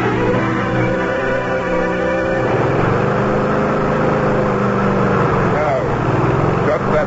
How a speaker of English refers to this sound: They're just mowing the lawn